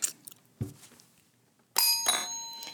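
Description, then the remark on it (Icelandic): A quiz team's bright metallic buzzer bell rings loud, struck twice in quick succession with a ringing tone that sustains, after a few soft knocks and handling noises. “frábært og hvernig hljómar ykkar bjalla?”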